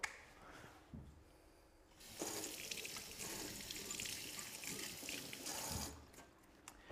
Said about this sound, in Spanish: Ahora hay que tener cuidado porque si hago así en los ojos, ¡oh! pica un montón. Lo mejor es poner debajo del agua y se va todo.